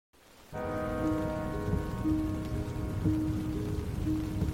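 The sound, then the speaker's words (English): Steady rain patters on the canvas top of a Jeep driving up Utah State Highway 39 in the canyon of the South Fork of the Ogden River on the morning of June 4, 1971, a dense continuous drumming that starts abruptly, with a low droning hum beneath it throughout. “Rain drizzled over the canyon of the South Fork of the Ogden River. It pattered on the canvas top of Heidi Poznien's Jeep as she drove up Utah State Highway 39 on the morning of Friday, June 4th, 1971.”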